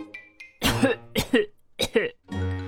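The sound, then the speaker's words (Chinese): A voice imitates a hippo coughing after it swallowed a parcel in one gulp: three loud, harsh, rasping coughs in a row, followed by a low, drawn-out groaning exhale, with a couple of faint clicks before the first cough. “包裹被河马一口吞了，河马开始咳嗽，”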